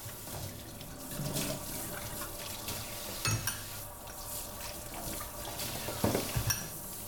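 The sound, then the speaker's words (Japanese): Dishes being washed with dishwashing detergent under a steady stream of running tap water, with occasional clinks and knocks of plates and utensils, moderately loud. No one speaks. “洗う音｜食器洗い洗剤”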